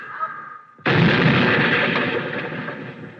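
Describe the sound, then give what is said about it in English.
A car with failed brakes rolls down a hill, goes up on the sidewalk and smashes into a wooden fence: after a low, steady rumble, a sudden loud crunching crash bursts out and keeps rattling and splintering for about two seconds, slowly fading. “Hang on, hang on. I'm going to crash.”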